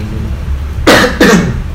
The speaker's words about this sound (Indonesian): enggak itu batuk